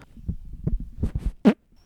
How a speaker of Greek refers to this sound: ελπίζω γι' αυτή η κλανιά να καταγράφηκε.